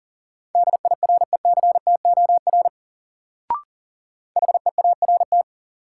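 Rapid Morse code beeps sent at 40 words per minute in a word drill: a steady, clear tone keyed in quick dots and dashes, two separate runs divided by a short pause with a brief click between them.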